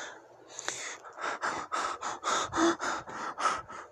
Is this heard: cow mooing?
no